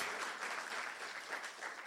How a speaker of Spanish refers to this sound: ¿Cuántos dicen gloria a Dios? Vamos a dar un aplauso más fuerte a Jesús.